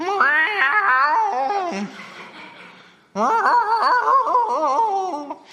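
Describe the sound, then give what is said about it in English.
A person's voice imitates a cat's drawn-out nighttime yowl, two long wavering wails separated by a brief pause, loud with bending, moaning pitch. “Does anyone have a cat that makes those noises at night?”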